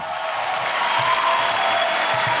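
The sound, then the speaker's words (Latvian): Sustained, dense applause from a large crowd giving an actress a standing ovation in a hall after her award speech, a steady wash of clapping that neither builds nor fades over the short stretch, with no voices standing out. “Aktrise pavadīja stāvu ovācijas zālē, kā arī sociālajos tīklos vienaldzīgais šai runai nebija.”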